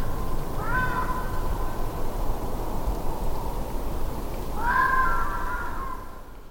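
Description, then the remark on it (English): A cat meows twice, a short mid-pitched meow followed a few seconds later by a longer, drawn-out one, both heard over a steady hissing background noise. “And and the cat when it's like doing this like it's like mm, so nice.”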